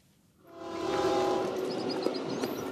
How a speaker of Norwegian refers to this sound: Et tog med drømmer er på vei nordover, gjennom Mexico og mot USA, med håp om et bedre liv. Unge menn klamrer seg fast på taket, og noen henger langs siden av toget som fyker gjennom sukkerrørsmarkene sør i Mexico.